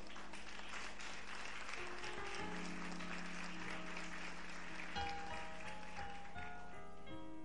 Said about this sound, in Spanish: Aplaude fuerte ahora.